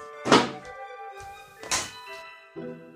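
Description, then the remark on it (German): A letter drops into a mailbox: two loud hollow metallic thunks about a second and a half apart, each with a ringing resonance, then a softer third clunk as the flap settles. “Das schmeiße ich jetzt im Briefkasten.”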